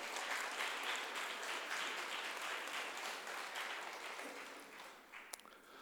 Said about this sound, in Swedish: Let's give him a hand. Låt oss klappa för honom.